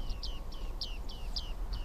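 A large flock of bearded reedlings calls while foraging for seeds in a wind-stirred reedbed beside a road, a quick series of short, bright pinging notes repeating several times over a steady low rumble of wind or background noise.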